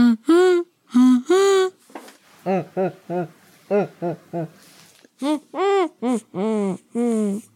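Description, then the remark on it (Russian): A voice hums in muffled, wordless bursts with the mouth and nose closed, a rhythmic run of short syllable-like tones rising and falling like speech, separated by brief pauses. “Вот поэтому касатки свои звуки легко под водой воспроизводят, а мы можем только что-то нечленораздельное промычать с закрытым носом и ртом.”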